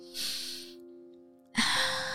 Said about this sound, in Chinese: 可是却听见自己急促的呼吸声。他深呼吸，再次深呼吸，